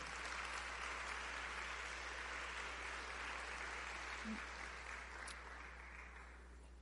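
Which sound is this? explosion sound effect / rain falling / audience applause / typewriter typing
audience applause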